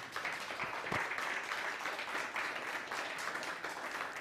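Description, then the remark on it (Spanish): Steady applause from a crowd fills the space, a dense continuous patter of many hands clapping at an even level for several seconds without pause. “Denle un aplauso, por favor, al bendito sea por esto.”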